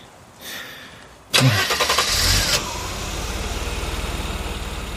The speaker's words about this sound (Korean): 연우가 고개를 끄덕이며 시동을 걸었다.